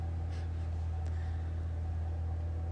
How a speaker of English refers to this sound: Excuse the truck outside. Oh my god. I need to tell you that they've been there for a while.